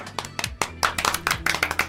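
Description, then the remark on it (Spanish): A short burst of applause for a guest on Radio Lab: quick, uneven hand claps at a steady moderate level, with a faint low hum underneath and no voices. “Bien, un aplauso.”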